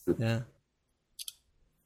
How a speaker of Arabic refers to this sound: تذكرون هذا الصوت؟ لحظه اي مال القفل